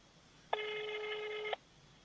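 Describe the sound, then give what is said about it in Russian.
A single steady ringback tone sounds for about a second, clear and moderately loud, like a phone line ringing while a call goes through. Nobody speaks. “Он так до бесконечности будет вызывать, да?”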